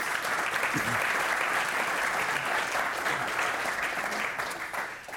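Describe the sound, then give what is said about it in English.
An audience applauds the panelists for getting through a lightning round. It is steady for about five seconds, a dense, fairly loud wash of many hands clapping at once, tapering slightly toward the end with no talking over it. “Let's give them a round of applause for getting through.”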